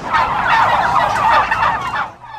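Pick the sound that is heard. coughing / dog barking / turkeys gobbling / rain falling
turkeys gobbling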